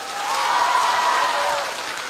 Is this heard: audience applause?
yes